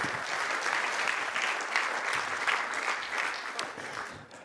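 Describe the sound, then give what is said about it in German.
An audience at ICF Luzern claps steadily for several seconds as a guest is called up for an interview, a dense, even patter of many hands that stays loud throughout and eases off slightly at the end. “geben wir dir doch einen grossen Applaus.”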